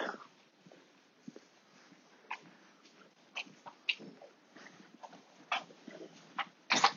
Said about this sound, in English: And here we are. I'm going to just uh, tie the dog up.